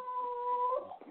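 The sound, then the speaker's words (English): A dog whimpers in one drawn-out, high-pitched whine that wavers and breaks near the end. It is fairly quiet and brief, with no talking. “Oh, that's my dog.”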